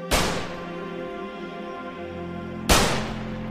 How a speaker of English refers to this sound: Has the mask on, it's black, you can see him with the two arms raised up and starts firing the shots.